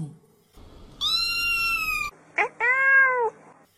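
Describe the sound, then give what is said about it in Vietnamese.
A cat meows twice, first a long drawn-out mew lasting about a second, then a brief pause and a slightly shorter, wavering meow, both loud and clear over quiet background; the cat is the story's fluffy kitten, 'Cục Lông Xù'. “Đây là cô mèo cục lông xù Nàng ta nghe đâu đấy có tiếng chuột chít thì phải”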